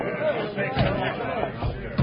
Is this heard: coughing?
no